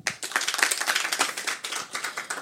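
A group breaks into applause, a dense, steady patter of many overlapping hand claps that holds at an even, fairly moderate level throughout, with no one talking over it.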